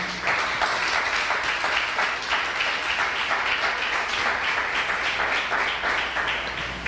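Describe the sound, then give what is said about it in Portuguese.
An audience at a church service applauds for Jesus, many hands clapping in a dense, even wash of sound that holds at the same loudness throughout, with no voices standing out. “Nos aplaude o Senhor Jesus.”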